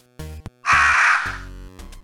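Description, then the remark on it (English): A distant crow caws on a cold, still night: a couple of short calls followed by one long, harsh, raspy caw that trails off, heard alone without any talking. “Only the call of a distant crow stirs the cold night air.”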